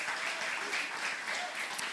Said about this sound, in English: Can we just give one more round of applause for those who got baptized?